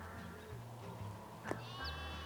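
Sheep bleat faintly and steadily in the background, their wavering calls overlapping across the whole stretch, with a brief sharp knock partway through. No one speaks.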